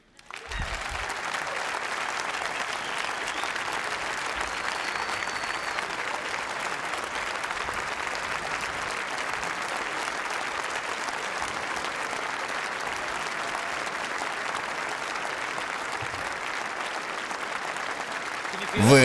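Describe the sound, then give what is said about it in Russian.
Sustained audience applause, a steady dense wash of many hands clapping for nearly twenty seconds at an even, loud level with no one speaking over it. “Да, на самом деле это первый раз, когда я чувствую аплодисменты жилетом.”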